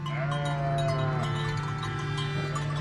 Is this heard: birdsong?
no